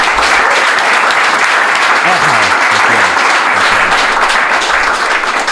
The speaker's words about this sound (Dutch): Pak ik een applaus voor de prins van liefde